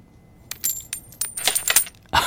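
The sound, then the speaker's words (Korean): Several coins drop and clatter onto a hard surface in quick, uneven succession, bright metallic clinks, ending with a louder jingling rattle as more coins land together. “예, 동전, 동전 소리예요.”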